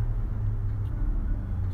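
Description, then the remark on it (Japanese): Steady low road rumble from a car on the move, heard from inside the vehicle as a continuous engine and tire drone with no voices and no breaks, while driving behind a Jimny. “今前走ってるジムニーをですね車をチェックしてですね”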